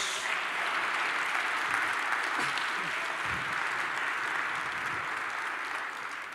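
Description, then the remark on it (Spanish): An audience applauds God steadily for several seconds, a dense, continuous wash of many hands clapping that tapers slightly at the end, with faint voices mixed underneath. “Dele otro aplauso a nuestro Dios.”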